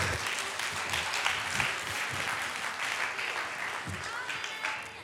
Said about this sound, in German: Okay, sehr gut. Also mal einen fetten Applaus